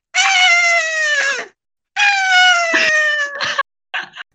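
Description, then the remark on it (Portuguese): A person imitates a crying koala with two long, strained, nasal wails that slide slightly downward, then a few shorter broken sobs, loud and without other talk. “Só que o koala chorando assim.”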